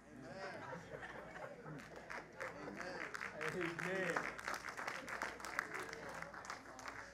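Scattered, half-hearted clapping from a crowd, uneven and not very loud, mixed with murmuring chatter and a bit of laughter throughout.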